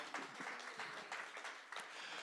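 A crowd applauds steadily, many hands clapping in a dense, continuous patter with a few sharper individual claps standing out, no voices heard.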